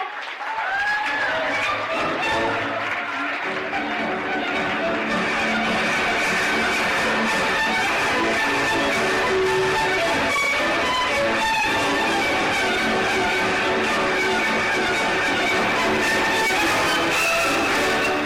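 An audience claps steadily and loudly without a break for the whole stretch, a dense crackling wash of applause with faint tonal music running beneath it.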